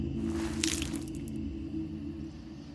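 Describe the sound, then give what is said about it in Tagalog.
A wet washcloth soaked in lukewarm water squishes as water is wrung out while wiping down a feverish child at night, with a short burst of wet squelching and dripping, followed by a quieter stretch over a steady low hum. “Pinapahiran niya ng bimpo na binasa sa maligamgam na tubig.”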